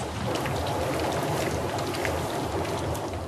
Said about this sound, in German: Auch dieses Schmatzen hier, das wir hören, kommt von dem Eisen. Knapp 1500 Grad Celsius ist es heiß und flüssig natürlich.